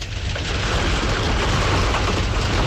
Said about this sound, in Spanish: granito, una lluvia tremenda, fuerte con granito. No hay quien aguante los vehículos, los granitos, cayendo granito. Es una fe fuerte la lluvia de granito que está cayendo ahora mismo aquí en Bonao,